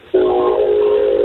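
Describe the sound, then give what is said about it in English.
A train horn sounds suddenly and holds as one loud, steady, droning blast, fairly close by, with no voices over it. “I'm sorry about the train behind That's me.”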